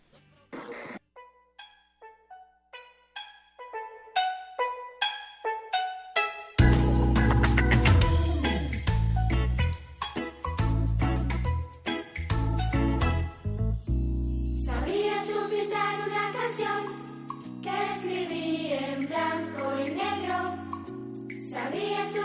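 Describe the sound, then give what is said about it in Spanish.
A cheerful, upbeat song opens with a quick run of bright, chiming single notes, then a full band with heavy bass comes in and plays on steadily and loudly. “Escuchamos la siguiente canción.”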